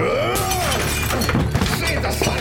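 A sharp glass smash bursts out, followed by a scatter of tinkling shards, heard up close amid a busy, noisy background with voices mixed in.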